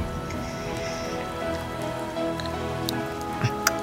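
rain falling

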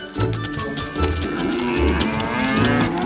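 cows mooing

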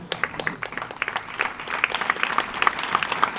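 audience applause

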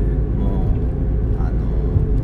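car driving past

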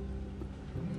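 car engine revving outside

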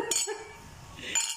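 glasses clinking

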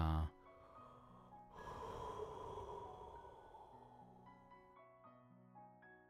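yawn

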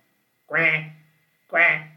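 duck quacking

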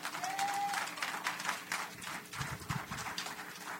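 audience applause

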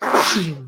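sneeze

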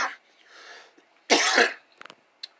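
coughing fit

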